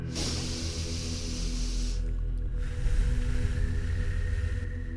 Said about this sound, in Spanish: Vamos a respirar profundo.